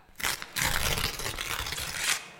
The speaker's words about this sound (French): voilà, on déchire un bout de papier.